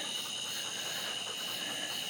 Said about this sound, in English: And you can hear all the tree frogs. I hope you can hear them.